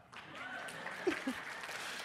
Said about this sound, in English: I have actually made Chick fil A cookies. With, yeah, First service clapped for that.